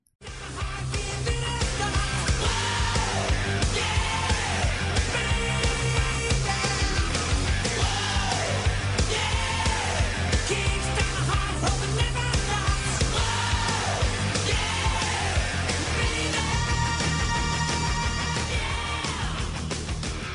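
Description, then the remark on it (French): A loud 1980s glam metal song plays throughout, with dense distorted guitars, a driving bass line, crashing cymbals, and a soaring vocal line bending up and down in pitch. No one talks over it. “Bah, comme vous l'avez entendu, c'est un groupe de glam, air metal, hard rock, paillettes tout ça des années 80.”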